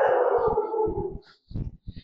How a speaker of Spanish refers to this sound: Yo ahorita estamos pasando por una casa y perros.